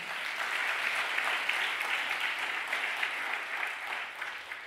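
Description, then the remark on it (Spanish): Steady, sustained applause from a crowd, a dense crackle of many hands clapping at an even level for several seconds before starting to taper slightly at the end. “Dale otro aplauso fuerte.”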